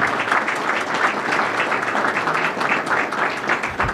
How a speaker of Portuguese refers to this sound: Vou dar um aplauso para esse grande mestre que está aqui.